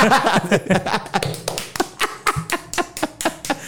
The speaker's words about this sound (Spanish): Porque están aplaudiendo?